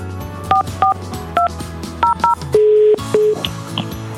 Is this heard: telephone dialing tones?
yes